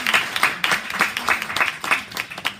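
An audience applauds energetically, with dense, crackling clapping that swells in quick waves throughout the short clip. There is no talking over it.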